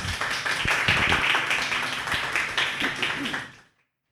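An evening talk audience at the Crack the Code space applauds the night's guest in a dense, steady wash of many hands clapping at once, holding a fairly even loudness for about three and a half seconds before cutting off abruptly into silence.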